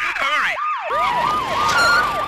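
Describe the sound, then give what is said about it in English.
A police siren wails in rapid, repeating up-and-down sweeps, loud, with traffic noise underneath and no one talking. “The cops are here!”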